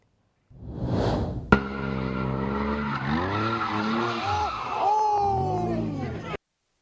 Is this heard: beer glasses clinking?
no